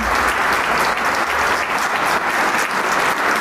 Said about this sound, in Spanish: Y la gente se queda aplaudiendo, la orquesta está lista, también ya de pie, recibiendo el aplauso y el cariño del público. El maestro sale para recibir el aplauso